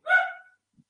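A single short, rough dog growl close to the microphone, loud at first and fading within half a second, followed by silence and a faint low bump.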